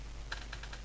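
Quiet keyboard clicking in the background, four or five quick keystrokes spaced irregularly over a low steady hum, with no voices present.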